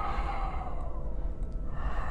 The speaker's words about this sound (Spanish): volví a escuchar la respiración. Esta vez más fuerte, más rápida, constante. Me paralicé un instante y solo escuchaba la respiración.